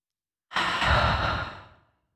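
A single long, breathy exhale through the mouth after a deep breath into the belly, fairly loud, rising quickly then fading out gradually over about a second and a half, with no talking, during a guided breathing exercise.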